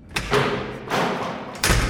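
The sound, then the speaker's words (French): Heavy prison doors clank and grind open, a few loud metallic thuds separated by rolling, rumbling slides, with no voices. “Les portes de la prison s'ouvrent.”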